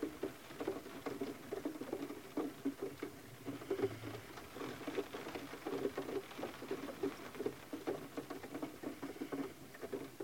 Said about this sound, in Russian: Конечно, на сопение собаки во время записи.